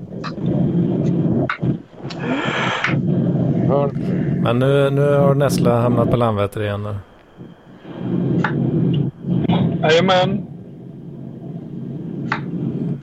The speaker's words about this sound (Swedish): Det, det, det, låter som att du dammsuger i din uh, mikrofon. Nej, jag kör bil. Ja, du kör bil ja. Ja, det är fruktansvärt irriterande.